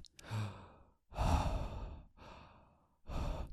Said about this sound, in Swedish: Och idag så ska jag prata om andning Andning, det är ordet för, alltså substantivet för att andas Det här är att andas